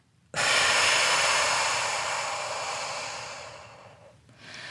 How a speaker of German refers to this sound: Also lass uns die Hand auf den Oberbauch legen und atme ganz tief in deinen Bauch ein und spür, wie sich die Bauchdecke hebt